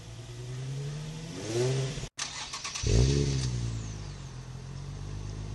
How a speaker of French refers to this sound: Euh, super petite caisse, une fois qu'il y a un échappement, ça craque un peu fort fort quand même l'engin.